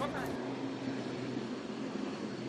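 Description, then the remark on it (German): Steady, dense rumble of a busy train station, with a constant low mechanical hum and a faint murmur of voices in the background throughout. “Am besten wir bleiben am Bahnhof.”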